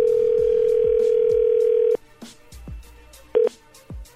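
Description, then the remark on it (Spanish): A steady telephone dial tone hums for about two seconds, then cuts off, followed by a scatter of soft clicks and a short electronic beep as a woman's husband's number is dialed. “A ver, vamos a marcarle por último.”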